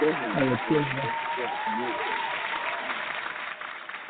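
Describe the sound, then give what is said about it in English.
A recorded applause sound effect: a burst of steady crowd applause lasting about four seconds, with cheering voices rising over the clapping at the start before the dense patter carries on alone and tapers slightly at the end. “So let me oh. throw some claps on.”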